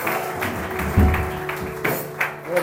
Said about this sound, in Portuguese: E se você recebeu essa oração, se você concorda com isso, aplaude Jesus de todo o teu coração. Aplauda Ele.